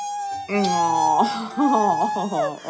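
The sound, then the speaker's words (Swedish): A person mimics the whining cry of a kitten, Axel, crying outside a closed door: a high, wavering whimper lasting a couple of seconds, with the pitch sliding up and down in short plaintive bursts. “och du vet jag, jag har faktiskt inte hjärta att bara liksom skita i en, alltså en kattunge som står där ute och, och gråter.”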